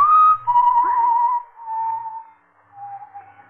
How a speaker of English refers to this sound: I want to make sure I ain't hearing things. Well, of course I hear it. It's someone whistling